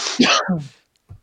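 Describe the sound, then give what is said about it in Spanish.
A single sharp sneeze, a noisy burst with a voiced catch that trails off, followed after a short pause by a faint low sound. “Salud.”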